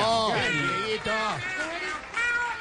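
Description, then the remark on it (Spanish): A man imitates a cat with a string of drawn-out, wavering meows, about three in a row, loud with no other sounds around him. “Y el señor que le está poniendo los sonidos del gato es nada menos y nada más que”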